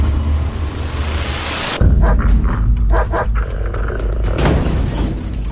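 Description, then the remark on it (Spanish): Nelly, a very affectionate female pet dog, growls low and rough while showing her teeth, then lets out a few sharp barks in short bursts, loud over a deep rumbling background with no talking. “Nuestra perra Nelly, que es, es muy cariñosa, es la perra más adorable del mundo, comenzó a gruñir y ladrar y a mostrar los dientes.”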